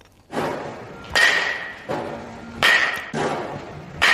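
A batting machine repeatedly smacks balls, giving sharp thumping cracks at a steady pace, with a faint ringing tone lingering after each strike. There is no talking.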